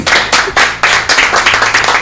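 A crowd of people applauds a guest, a steady, fairly loud burst of clapping with irregular overlapping claps lasting a couple of seconds, no voices.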